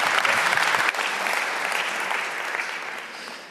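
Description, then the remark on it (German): Sustained audience applause welcoming a speaker, a dense wash of many hands clapping at a steady loud level that gradually tapers off toward the end, with no voices on top. “Lassen Sie noch mal mit so einem richtig warmen Applaus begrüßen und hören, was er zu sagen hat.”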